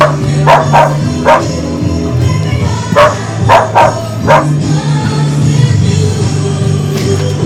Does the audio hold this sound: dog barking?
yes